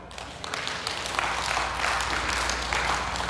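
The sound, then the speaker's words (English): A crowd at NLC applauds steadily, many hands clapping in a dense, continuous patter that holds at an even loudness from start to finish. “You can clap.”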